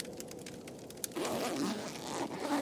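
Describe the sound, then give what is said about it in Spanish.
A tent zipper is pulled open in a few short, raspy strokes, fairly loud, with a steadier drawn-out pull in the second half, opened by a person getting out to see what was outside the tent; no voices. “Abrí el cierre para salir y ver qué andaba afuera, tratando de hacer el menor ruido posible”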